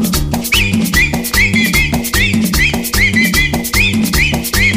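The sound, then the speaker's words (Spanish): Shrill whistling from everyone whistling along rises in short, repeated upward swoops over lively, steady-beat dance music with a bouncing bass line, the whistles recurring in a regular pattern throughout. “Y ahora chiflando todo, chiflando todo.”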